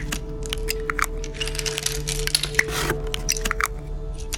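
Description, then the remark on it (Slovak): A woman in a kitchen pushes all her hoarded tablets, including diazepam, out of their blister packs and crushes them: crisp snaps and crackles in quick irregular bursts over a faint steady hum, with no talking. “Potom odišla do kuchyne a z obalov povylupovala všetky tabletky, ktoré sa jej podarilo nahromadiť.”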